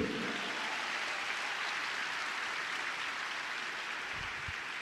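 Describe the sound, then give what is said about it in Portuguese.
A crowd claps steadily for about five seconds, applauding the Lord: a dense, even wash of many hands with no voices rising above it. “Alguém pode aplaudir o Senhor por isso aqui?”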